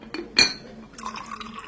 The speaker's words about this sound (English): Here's your tea. Madam, sir, Oh, thank you. I'll pour it.